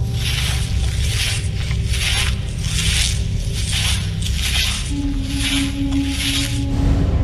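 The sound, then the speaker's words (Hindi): Rhythmic rustling through crops in fields beside a road at night, a series of dry, scratchy swishes repeating roughly every half second over a steady low rumble, with a faint sustained hum joining partway through. No one speaks. “और उसके लगभग एक महीने बाद रात के अंधेरे में जब इक्का दुक्का वाहन ही सड़क से गुजर रहे थे तब उस सड़क के दाहिनी ओर दूर तक फैले खेतों में सरसराहट हुई”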